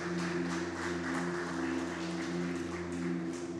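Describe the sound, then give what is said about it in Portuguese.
A crowd claps steadily for a few seconds, applauding Jesus, a dense, continuous patter of many hands at moderate volume, with a low sustained tone humming underneath throughout. “Vamos aplaudir a ele, porque ele é maravilhoso mesmo.”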